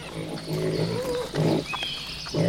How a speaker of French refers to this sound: Des grognements de cochons en pleine forêt, ça doit être des cochons sauvages, autrement dit des sangliers